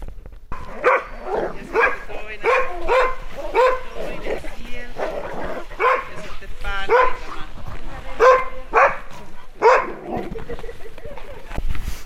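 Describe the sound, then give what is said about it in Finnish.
Many sled dogs, about 400 in one kennel, bark and yip together in a dense, continuous chorus, loud, with overlapping high-pitched howls and yelps filling the whole stretch. “Tuolla käytiin koiratarhassa ja vähän ajelullakin, niin 400 koiraa oli siinä yhdessä tarhassa.”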